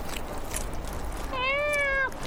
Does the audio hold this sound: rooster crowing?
no